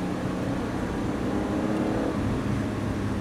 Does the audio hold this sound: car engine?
yes